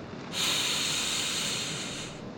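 A long, deep inhalation, a steady airy hiss that swells in and holds for about two seconds before easing off. No one speaks.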